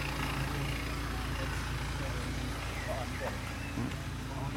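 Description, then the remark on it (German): A car engine idles at a zebra crossing while pedestrians cross in front of it, a steady low rumble that holds constant throughout, with faint street noise in the background. “Ich blockiere das Auto schön.”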